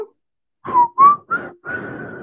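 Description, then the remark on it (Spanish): Someone whistles a short tune: three quick notes in a row, then a longer held note, with a slightly breathy edge and no talking. “¿Qué está silbando?”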